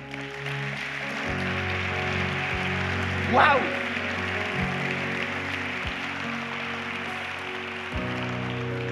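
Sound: audience applauding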